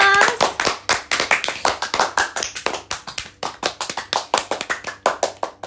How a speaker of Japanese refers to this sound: これなんで毎回拍手すんの盛り上がってる感が盛り上がってる感を出してるね盛り上がってないのに